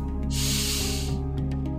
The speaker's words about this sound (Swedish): Men först ska vi ta lite tid för dig att ta hand om dig själv. Börja med att andas in med näsan.